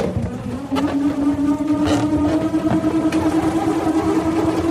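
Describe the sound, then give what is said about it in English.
A steady, loud buzzing whir with a rising hum, like a small engine revving, made by a nut whirring around inside a balloon being spun by hand, continuing without pause and with no voices over it. “This is nuts going around in balloons.”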